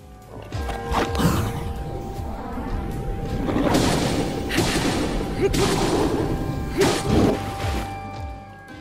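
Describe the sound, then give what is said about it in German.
Combat effects from the video game Zelda Breath of the Wild, dodging at the perfect moment and then striking back: a quick whoosh of the dodge followed by a series of sharp, heavy impact hits and crashing thuds, layered over a dense, dramatic musical backdrop. “Und ein Spiel, das das geschafft hat, ist natürlich Zelda Breath of the Wild, denn so klingt es da zum Beispiel, wenn man zur perfekten Zeit ausweicht und dann zurückschlägt.”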